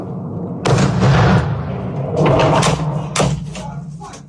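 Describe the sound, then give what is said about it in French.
A series of explosions, around three heavy booms with rumbling in between, loud and broad, outdoors without any clear talking; recorded by residents during the night, around 5 a.m. local time. “Des explosions de ce type sont entendues un peu partout dans le pays, dans les régions séparatistes, mais aussi à Odessa, c'est au sud, beaucoup plus à l'ouest, et puis dans la capitale Kiev.”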